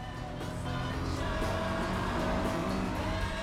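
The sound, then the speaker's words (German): A car drives along with a steady engine drone and road rumble that holds an even, fairly loud level throughout, with no talking, on the way to a remote farmstead near Simbach. “An dieser Stelle geht es nun definitiv nicht mehr ohne Auto.”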